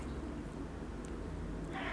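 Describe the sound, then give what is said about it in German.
A male cat meows with a drawn-out, tonal call, followed by a brief rougher burst near the end; no one speaks. “Hey, mein Kater.”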